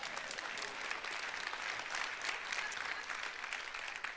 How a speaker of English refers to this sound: Somebody clap for that, please.